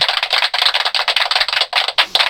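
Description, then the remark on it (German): A short burst of applause sound effect played from the top-left button of a sound button board: dense, crackling clapping from a crowd, steady and fairly loud for a couple of seconds with no voices. “Das ist der Applaus.”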